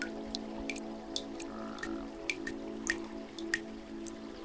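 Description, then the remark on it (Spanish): Scattered raindrops tap and drip at an uneven pace, each a short, bright plink over a steady low hum, fairly soft, with no voices. “Así que imagina ahora que ves y escuchas las gotas de lluvia, todas cayendo a través del cielo.”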